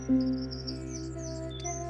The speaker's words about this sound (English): I'm in East Cork. I'm listening to the birds.